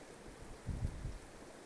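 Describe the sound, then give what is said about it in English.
A steady, soft rush of a cold mountain stream, its water about 5 degrees Celsius, faint and continuous, with a few low, muffled bumps partway through and no voices. “So I'm, this water is right in front of us. We can just go jump into It's about 5 degrees Celsius.”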